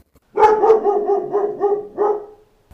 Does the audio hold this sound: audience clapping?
no